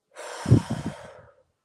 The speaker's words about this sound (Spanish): Inhalando por la nariz y exhalando fuerte por la boca. Vamos a hacer este sonido. Atención, este sonido. Al inhalar, al exhalar.